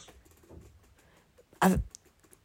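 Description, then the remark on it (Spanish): A single loud keypress clack on a braille keyboard, the six dot keys pressed together with enter, preceded by a few faint soft taps. “Y ahora le doy a los seis puntos más el enter.”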